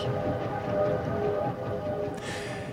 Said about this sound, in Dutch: Vandaag stappen we niet in een stoomtrein, maar in een stoomtram. Een bijzonder voertuig dat zo'n 100 jaar geleden grote maatschappelijke betekenis had. Dat is uh, stoomtramlocomotief 18 van de Gooise stoomtram.